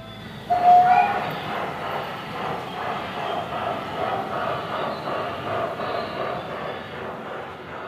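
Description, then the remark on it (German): A hand-built, large-scale gauge 2 (1:22.5) model railway train runs steadily at the Eisenbahnmuseum Schwarzwald, which holds the world's largest gauge 2 collection. Its continuous rumbling clatter keeps an even, gently rhythmic pace, with a brief high whistle-like tone just after it starts. “Und wir zeigen hier was ganz Besonderes, nämlich jede Menge handgebaute Modelle im großen Maßstab.”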